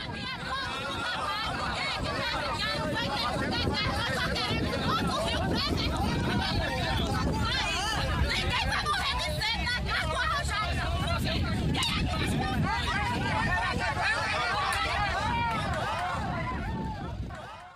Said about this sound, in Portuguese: A multidão revoltada tem uma palavra de ordem em mente: ninguém vai morrer de sede nas margens do arrojado.